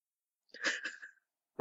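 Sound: nose blowing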